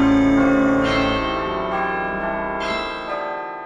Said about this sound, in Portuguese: Longe, muito longe, o sino repicou. Que sino baladeiro.